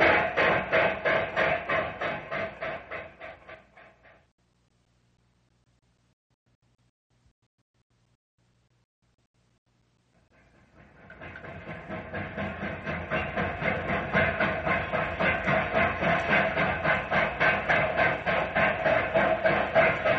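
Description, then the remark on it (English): A steam train with a caboose chugs along with a steady rhythmic clatter of wheels and rattling cars, drops to near silence for several seconds, then resumes its loud, even clickety-clack. “We'll shove off. Right. Full steam ahead and don't spare the horses.”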